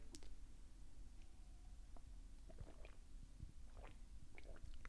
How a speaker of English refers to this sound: Just going to sip some coffee here.